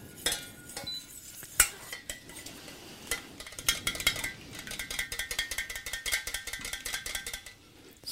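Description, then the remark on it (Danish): Rapid, steady metallic scraping and clinking of a whisk beating butter in a bowl, with sharper clinks early on and a quickening rhythm through the second half, no talking. “Så pisker vi, så pisker vi.”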